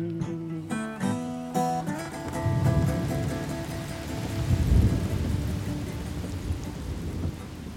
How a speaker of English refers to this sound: July 2004. Heavy raindrops pelt down across the windshield during a southern summer heat wave.